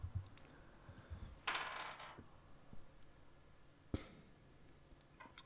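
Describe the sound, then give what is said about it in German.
A short rattling burst, then a sharp clack and a few scattered clicks as dice are shaken and rolled onto a table. Quiet, with no talking. “stimmt, du musst würfeln. Hau rein.”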